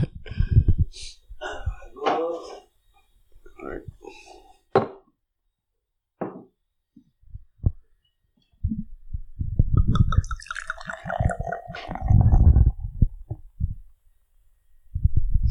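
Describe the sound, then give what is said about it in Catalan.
Wheat beer poured into glasses: a few clinks and short splashes, then a steady, gurgling pour whose pitch rises as the glass fills, foam fizzing at the end. “doncs avui bevem la del Moro, que és una cervesa de gollons, una cervesa de blat, eh, així pel bon temps, molt recomanable, i res, anem a omplir els gots i en parlem més.”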